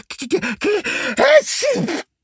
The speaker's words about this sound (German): Oh, oh, Gesundheit.